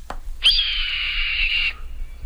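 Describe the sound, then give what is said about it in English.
A single red-tailed hawk call, a long, harsh, raspy scream lasting just over a second, loud, with a faint earlier note and a quiet background. “the red tailed hawk.”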